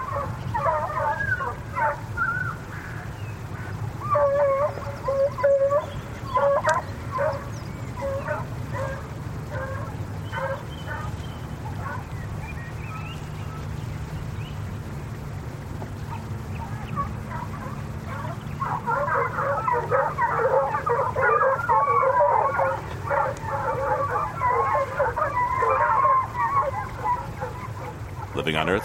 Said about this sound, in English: Unless an appeal is successful, fox hunting with dogs, like these giving chase near Hound Tor, England, is to cease in three months, according to an act of the House of Commons.